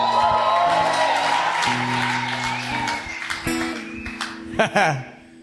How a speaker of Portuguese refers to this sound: why was everyone why was everyone cheering? Ah, Porque estava todo mundo gritando?